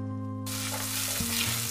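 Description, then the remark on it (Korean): Food starts sizzling in a hot pan after a brief moment of low humming, then crackles steadily and loudly, with a faint steady hum underneath and no voices; side dishes are being cooked at home. “밑반찬도 가득 만들었죠.”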